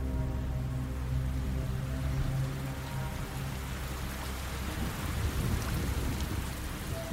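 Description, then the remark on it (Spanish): Steady, dense rain pours down without a break, turning the ground to mud, while deep thunder rumbles low and continuous beneath it, the storm loud throughout, with no voices. “La lluvia comenzó a caer, empapando a las tres mujeres y llenando de lodo el suelo.”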